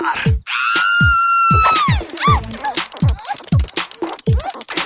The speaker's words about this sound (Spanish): Les va a gustar, así que vámonos con APD Ardillas por doquier de Film Alguno cualquiera quien sea va a gritar.